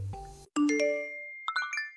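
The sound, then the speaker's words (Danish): A bright electronic notification chime: a low thud, then a ringing multi-tone ding sustaining and decaying, followed by a quick flurry of sparkly higher blips. Clear, with no voices. “Du har åbnet en besked fra det digitale rum.”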